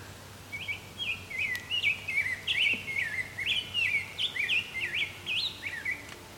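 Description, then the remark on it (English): A grosbeak sings a continuous, warbling song of rich, rising and falling phrases, clear, with a soft background hiss and no talking. “I think this grosbeak just flew off.”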